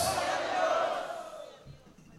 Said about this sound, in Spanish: Tenga la bondad de sentarse, hermano. Gritando un fuerte gloria a Dios.